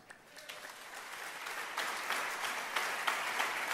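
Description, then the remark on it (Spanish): A crowd claps for God, the applause starting modestly and swelling into a dense, sustained patter of many hands that holds at a fairly loud level to the end, with no voices over it. “Ese es el Dios al que amamos y servimos, el Dios que merece todos los aplausos.”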